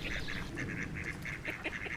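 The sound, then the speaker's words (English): A group of Peking ducks by a lake on a dam quacking repeatedly in short, nasal bursts, steady, with a busy outdoor background of water and birds and no talking. “These are Peking ducks, mm-hmm.”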